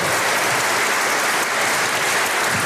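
Steady applause from an audience, a dense wash of many hands clapping at an even, fairly loud level throughout, with no voices standing out.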